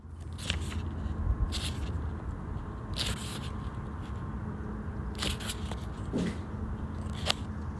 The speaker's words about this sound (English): Is it a creature hopping? it is supposed to be someone rifling through a magazine. Oh, yes, that's obviously what it is